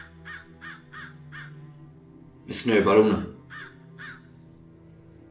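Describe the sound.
Crows caw in a steady series of harsh, evenly spaced calls, four in a row, then two more after a short burst of a man's speech breaks in over them.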